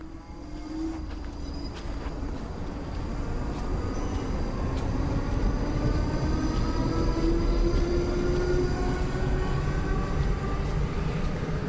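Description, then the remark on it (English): A train pulls away from Longcross Station in the county of Surrey, its steady low rumble building as a motor whine rises in pitch with the acceleration. Loud and continuous, with no voices. “And that's the sound of my train again leaving Longcross Station, deep in the, in the county of Surrey.”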